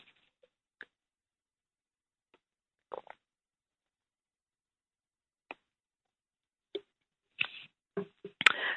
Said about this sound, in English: So I am going to uh, take a sip of my water here